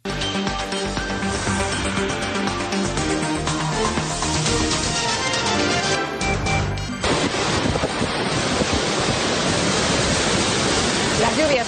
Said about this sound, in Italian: Apertura con le immagini e i suoni delle piogge torrenziali che hanno colpito l'est dell'Andalusia.